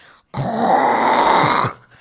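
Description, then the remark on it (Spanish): A person mimics a partner snoring beside them with one loud, raspy, rattling breath that lasts just over a second, followed by quiet. No words are spoken. “Hay muchas cosas que ya, pues como tú dices, no es lo mismo despertarte y, que literalmente tu brother, tu, bueno, tu vato más bien, está a un lado de ti roncando así de que...”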